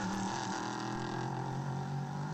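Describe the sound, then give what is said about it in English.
A loud, steady V8 race car engine rumbles, pops, bangs and growls throughout in the morning in Central Florida, a dense throaty drone with no pauses and no voices, continuous. “There is nothing like the sound of a V8. Just popping and banging and growling away at this time of the morning.”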